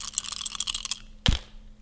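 Dice rattle with quick, dense clicks for about a second, then come down in one sharp clatter on a hard surface, landing on a 6 and an 8, moderately loud, with nobody talking.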